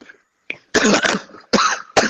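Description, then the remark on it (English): A person coughs several times in close succession, loud and harsh, starting with a small catch and then three heavy, rasping bursts. No talking. “I mean, he's coughing up blood as we speak, but I guess carry on.”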